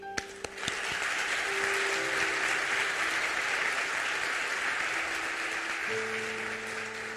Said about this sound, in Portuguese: E eu queria que nós, hoje, dessemos uma salva de, uma salva de palmas pelo que Estevão fez.